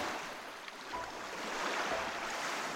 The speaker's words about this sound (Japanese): 目を開けたらそこにはいつもの海が広がっていたどこともつながっていない海